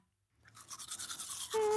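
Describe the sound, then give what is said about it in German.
Rhythmic scrubbing of a toothbrush against teeth at bedtime, fairly loud, with quick repeated strokes; a brief tonal hum joins near the end. “Hm, hier, deine Zahnbürste”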